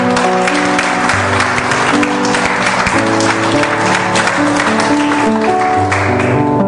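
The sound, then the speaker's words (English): A church audience gives a loud, sustained round of applause to God during a morning service, dense clapping running steadily for several seconds while held keyboard or organ chords play underneath. “Give me, let's give a round of applause to God if we're good.”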